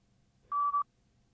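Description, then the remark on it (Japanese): A single answering-machine beep, the tone after which callers are asked to leave their name and message: a steady, clear electronic tone lasting about a third of a second, loud, with a tiny hiccup near its end, surrounded by quiet line hiss. “リーという発信音の後に、お名前とご用件をお話しください。”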